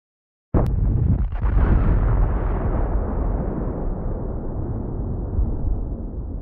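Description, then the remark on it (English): A sudden loud explosion bursts in after a brief silence, then a heavy, rumbling roar rolls on and slowly fades over several seconds, with no voices. “Another explosion ripples out.”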